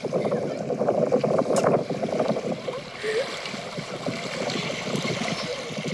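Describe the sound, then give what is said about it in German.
Steady splashing and sloshing of water at a beach under a blue sky, where a mother and her son play, a busy churning wash that eases into a softer, airier rush partway through. “Und wir haben hier zusammen gespielt. Wasser.”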